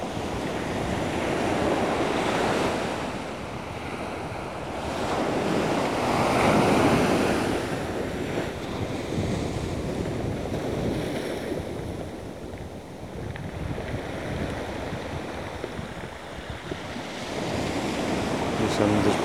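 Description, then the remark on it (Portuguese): Ocean waves wash onto a beach in broad, rolling surges, with steady wind rushing across the microphone throughout. No voices, just continuous surf swelling and receding. “relaxamos, deixamos simplesmente renovar, deixamos-nos renovar pela energia da praia, do mar, do sol, do vento.”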